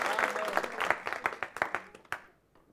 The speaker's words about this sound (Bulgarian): Да, може да ръкопляскате за това. Аз мисля, че това е добро получение. О, ако ще пляскате, пляскайте истински. Защото не ви кара. Пляскайте наистина.